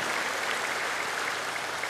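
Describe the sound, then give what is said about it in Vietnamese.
Steady applause from the audience of a Buddhist teaching talk fills the whole stretch, a dense, even patter of many hands clapping at a constant moderate level with no voices standing out. “hiểu mà hiểu mà vỗ tay cảm nhận được phải không ạ”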